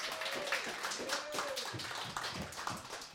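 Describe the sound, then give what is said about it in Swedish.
Steady audience applause for a pianist at the piano, a dense patter of many hands clapping at an even loudness throughout, with a few faint voices calling out underneath. “Eh, vänder lite om så får du ta emot publikens applåder.”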